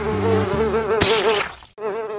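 A housefly buzzes loudly, its droning whine wavering up and down in pitch, cutting out briefly near the end before resuming.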